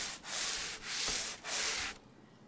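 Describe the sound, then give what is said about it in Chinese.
A brush dipped in water scrubs an old, abandoned two-wheeled cart in three long, even strokes, each a steady rasping hiss, followed by a brief quiet pause at the end. No one speaks. “他只是一个劲儿地擦洗着已经废弃了的两轮拖车，我听着姥姥拿刷子蘸水的声音，觉得如坐针毡。”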